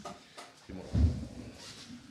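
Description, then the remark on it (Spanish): A chair is dragged across the floor as it is pulled into place for someone to sit on, a low scraping rumble that peaks in one heavier thump before trailing off, with no voices over it. “Ahí hay una silla, Charles, si quieres este, arrímate esa, sillita.”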